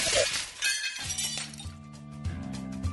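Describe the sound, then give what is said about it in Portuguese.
A sudden loud crash of glass dishes shattering as a tray carried by a ship's crew member on the stairs drops, followed by a scattering of bright clinks and tinkling fragments settling over the next couple of seconds. “Peguei não, a bandeja, isso... quebrei tudo.”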